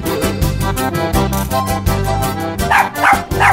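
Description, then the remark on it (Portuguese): A female dog barks loudly, firing off a rapid run of sharp barks. The barks stand out against a dense, steady background with no talking. “Olha, a cadela aí.”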